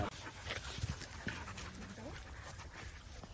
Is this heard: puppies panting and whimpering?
yes